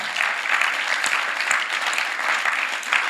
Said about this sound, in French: Est-ce que ce n'est pas une bonne nouvelle Est-ce qu'on peut faire du bruit pour Jésus Amen.